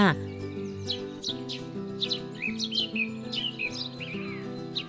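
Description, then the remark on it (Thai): Birds chirp and call loudly beside a window in quick, repeated bright bursts, lively, layered over a steady musical backdrop with no talking. “เสียงนกร้องดังที่ข้างหน้าต่างทำให้เจเจตื่นขึ้นมา”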